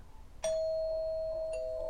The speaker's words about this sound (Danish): En tidlig aften ringer det på døren hjemme hos Maria.